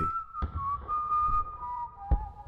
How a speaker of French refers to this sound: Quand on m'ennuyait, je sifflais à tue-tête, souvent même sans m'en rendre compte. De longues heures en train ou en bateau filaient en un clin d'œil, au son de mélodies populaires ou d'autres moins connues que j'avais inventées.